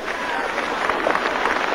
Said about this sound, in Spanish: Cariñosa ovación para Manolo cuando este brinda también a todo el público.